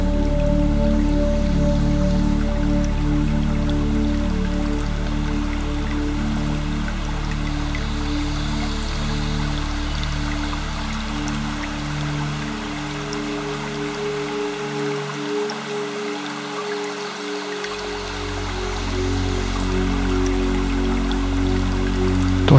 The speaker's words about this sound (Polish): Rozpocznij połączenie z dźwiękiem delikatnie płynącej wody.